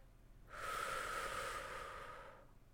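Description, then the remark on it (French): A single long, deep breath drawn in during a breathing exercise, a steady airy rush lasting about two seconds with a slight whistling edge, then quiet. “On va parler par exemple de d'exercices de respiration. J'inspire.”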